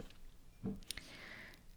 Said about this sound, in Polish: Ok, Idąc dalej, tak, ja będę pić czasami wodę w trakcie nagrywania. Yy, może mi się to uda wyciąć. Jak mi się uda wyciąć, to nie będziecie tego słyszeć, ale nie wiem, czy mi się to uda.